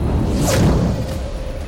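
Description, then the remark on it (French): An arrow shot from a bow whooshes through the air in one quick, airy swish that peaks and fades, over a steady low rumble, with no voices. “dans un geste net et précis, décocha une flèche de son arc en direction de l'ours.”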